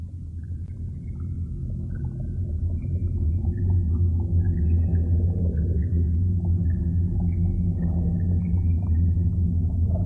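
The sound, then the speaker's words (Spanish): A dense underwater drone of low engine-like rumble, scattered with short, high chirping whistles that come and go throughout, blended into a steady hypnotic texture: a remix of sounds made by fish, crustaceans and sea urchins with human noise. “músicas hipnóticas que estamos escuchando unas músicas que resultan de remezclar los sonidos que producen los peces, los crustáceos o los erizos de mar con el ruido humano”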